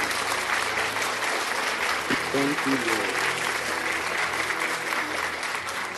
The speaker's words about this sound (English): People of God, just slap your hands for Jesus. Just clap for the Lord. Just clap for the Lord. Slap your hands for Jesus. Slap your hands for Jesus. Slap your hands for Jesus. Slap your hands for Jesus.